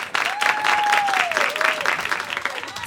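An audience bursts into steady applause for the next comedian during stand-up week, a dense, continuous wash of clapping that holds at a fairly loud level for about three seconds, with a thin whistle gliding through the middle.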